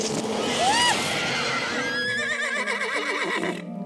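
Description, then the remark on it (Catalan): A horse whinnies loudly, a single long, high, shrill call that wavers and trembles as it drops in pitch before trailing off. “Ara no t'has de preocupar de publicar llibres ni d'escriure bé perquè ets un cavall.”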